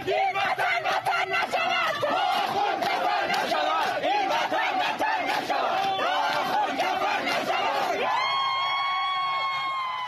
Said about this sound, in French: Une révolution où l'on entend les manifestants insulter les autorités, l'ayatollah, les représentants du régime en pleine rue.